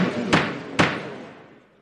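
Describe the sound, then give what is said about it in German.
Two sharp wooden knocks, like a gavel striking in a courtroom, about half a second apart, each ringing out briefly before fading. “Jemand klopft Gerichtssaal.”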